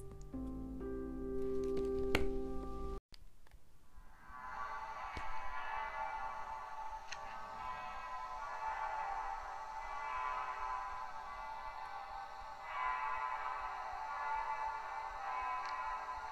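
Several church bells in Germany peal together in a dense, continuous wash of overlapping ringing tones, steady and reverberant, following a brief few seconds of tonal music at the start.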